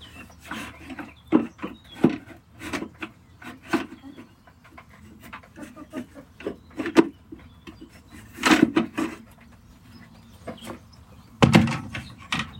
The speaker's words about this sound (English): Whilst I'm faffing around with this feeder, I should also tell you some upcoming administrative news.